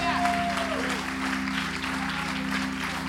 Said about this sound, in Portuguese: Aplauda Jesus.